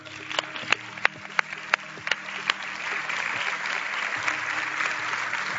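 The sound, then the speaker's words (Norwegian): A handful of sharp, evenly spaced claps start things off, then an audience joins in and they blend into steady, continuous applause that carries on to the end without voices. “Skal vi klappe?”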